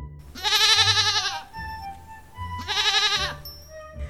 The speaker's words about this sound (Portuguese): O coelhinho, muito aflito, chamou o cabrito e o cabritinho foi chegando e berrando.